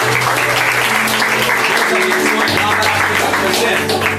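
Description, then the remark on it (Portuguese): A large crowd at a church service claps loudly and steadily for several seconds in applause to the Lord, a dense wash of applause over sustained keyboard chords playing underneath. “Aplauda ao Senhor.”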